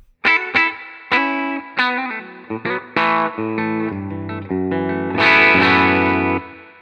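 A clean electric guitar with signature humbucker pickups plays a run of picked chords and ringing notes, each attack sharp and sustaining, building to a full, bright strummed chord that rings out before stopping.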